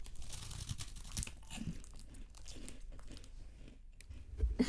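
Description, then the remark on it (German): Crunchy chewing of a crisp teriyaki-flavored snack, with repeated dry crackling bites and crinkling texture throughout, moderately loud and uneven in rhythm, growing louder at the end, with no talking. “gespannt, was du zu dieser Geschmacksrichtung sagst. Teriyaki.”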